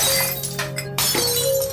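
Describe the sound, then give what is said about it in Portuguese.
Glass bottles shatter loudly at a home bar, several crashes and smashes tumbling together in a brief chaotic burst, with a steady hum underneath and no one speaking. “Antes de descer, ouvi barulhos de garrafa de vidro quebrando no bar do meu pai.”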